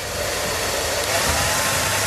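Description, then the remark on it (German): A hair dryer runs steadily, a loud whooshing roar with a faint whine on top that holds constant for the whole couple of seconds, with no voices. “Der Na gut, also wir wollen es ja, äh, es ist der Föhn, es ist der Föhn, ja.”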